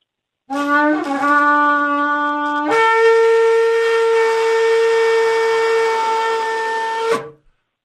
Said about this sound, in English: But I'm going to blow the shofar. Lord, help me. Uh, generally, I do okay, but sometimes it sounds kind of squeaky and dumb. Ladies and gentlemen, a shofar blast to begin the show